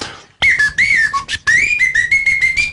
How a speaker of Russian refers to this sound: И вот э, я вожу с собой свистульки разные. Вот эту, например, мы купили на Родосе в Греции.